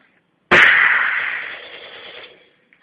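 A single loud gunshot sound effect cracks out sharply, then its roar and echo slowly fade over about two seconds, with no talking.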